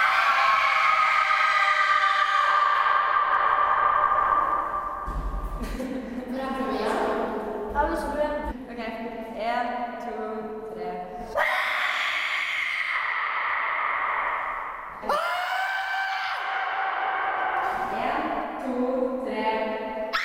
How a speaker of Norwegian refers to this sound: Morsomst var det allikevel å lage så høy lyd som mulig. Så nå er det om å prøve å rope så høyt som mulig. Og så skal vi i tillegg ta og måle hvor høyt dere klarer å rope.